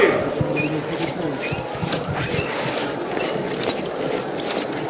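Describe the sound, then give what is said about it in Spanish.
Scattered short, high squeaks of float bearers' sneakers on the hard tiled floor of a parish church as they, in white trousers, begin to walk very slowly, coming irregularly over a dense indoor murmur of a crowd and shuffling movement. “Escucháis ese rechinar de las zapatillas con el embaldosado de la parroquia.”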